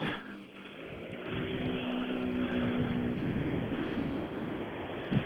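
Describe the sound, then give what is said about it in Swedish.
A rally car engine roars loudly and steadily, its droning tone rising slightly in pitch before fading, with a brief sharper burst at the very end, as Fredrik Collin's rally car arrives at the stage finish at Saab Arena in Linköping, with the sun shining. “Eh, vi, vi hoppar ut till målet och Erik Telehagen för att nu brummar det. Jajamensan, vi har, vi har bil här igen.”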